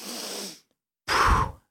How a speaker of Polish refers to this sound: Drugim sposobem na poruszanie limfy w ciele był głęboki oddech, taki energetyczny